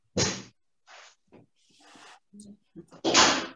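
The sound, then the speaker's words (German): A door is moved, with a loud swishing thud at the start and another at the end, separated by quieter rustles and small clicks. “So, Tür”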